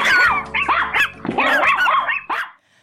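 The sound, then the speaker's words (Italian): Small chihuahuas bark in a rapid, overlapping flurry of shrill, high-pitched yaps for nearly three seconds, with a low growl running beneath. The barking is loud and stops abruptly. “o vi sguinzaglio i miei chihuahua.”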